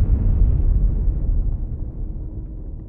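An airplane explodes high in the sky, a deep, heavy boom that rolls into a long, fading rumble dominated by low frequencies, with no voices present.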